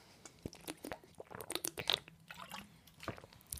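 Someone takes a quick sip of a drink: a run of soft, wet mouth clicks and swallowing sounds over a few seconds, fairly quiet, with no talking.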